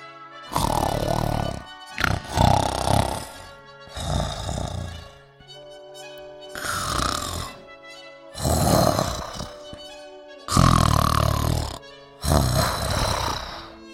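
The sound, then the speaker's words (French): Loud, rumbling snores from an ogre repeat in a steady rhythm, about seven deep rasping breaths with short pauses between, heavy like a giant snoring, with no talking. “Et il se mit à table, et but et mangea tant qu'il finit par s'endormir, avec des ronflements épouvantables.”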